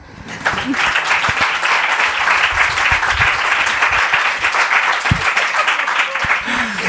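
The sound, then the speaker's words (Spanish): An audience bursts into applause after a brief pause. Many hands clap in a dense, steady roar that stays loud and even for about six seconds without fading. “Un aplauso, ¿no?”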